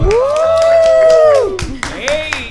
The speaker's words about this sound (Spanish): Fuerte el aplauso.